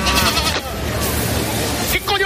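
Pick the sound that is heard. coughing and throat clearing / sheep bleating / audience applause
sheep bleating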